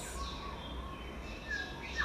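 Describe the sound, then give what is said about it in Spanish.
Small birds chirp faintly in a forest of firs and beeches in central Croatia, a few brief high whistles rising near the end over a steady low outdoor rumble and hiss. “Y sigo caminando y me cruzan pajaritos y mariposas.”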